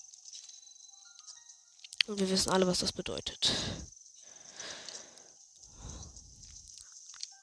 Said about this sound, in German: Aber leider sind wir jetzt im Zora-Gebiet. Es regnet.